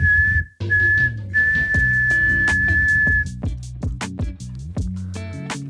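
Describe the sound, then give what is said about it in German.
Someone whistles like a referee's final whistle: a short blast, a brief break, then two long, steady, high-pitched blasts, followed by scattered knocks and clatter with a low background hum. “Pfeif, pfeif mal einer ab hier nochmal schnell her, komm.”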